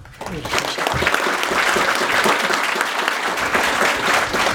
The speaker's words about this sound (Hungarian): És hát nagyon köszönjük nektek, kedves közönség, hogy eljöttetek erre az élő felvételre. Megtapsolunk benneteket, jó? Meg ti is magatokat.